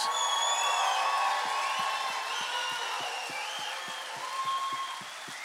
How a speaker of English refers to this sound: I don't know who all your teams are, but whoever it is, I want you to whistle and cheer and scream and holler